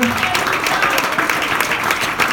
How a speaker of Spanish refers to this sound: Un aplauso al Señor.